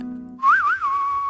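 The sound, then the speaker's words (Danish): A person whistles a short spaghetti-western-style phrase, the pitch wavering up and down before settling into one long held note, clear and fairly loud with no talking. “Altså, så vil det have været en fløjte også.”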